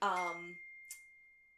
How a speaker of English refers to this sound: excuse my phone. I'm so sorry. I think that was me.